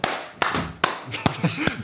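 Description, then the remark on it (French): A single pair of hands claps five times in a slow, steady rhythm, each clap sharp and crisp, with a faint voice murmuring underneath toward the end. “T'es là, il t'applaudit, et puis il voit que t'applaudis plus, il fait.”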